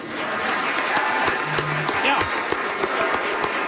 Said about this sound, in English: And those people applauding at that public hearing, those people are what are driving these investigations.